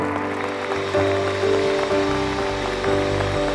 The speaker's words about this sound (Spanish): Denles un fuerte aplauso.